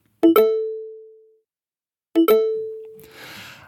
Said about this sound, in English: So um, let's have a listen and we're going to play them twice because they are indeed microsounds. So, first, we'll hear the sound of success.